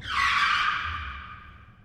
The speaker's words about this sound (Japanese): 突如、長谷部は急ブレーキを踏んだ。そのため、車内にいた三人は前につんのめった。